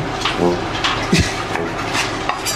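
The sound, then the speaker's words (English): A knife chops parsley on a cutting board, with several uneven, sharp taps spread across a few seconds and a faint voice murmuring in the background. “Oh my God, I'm chopping parsley.”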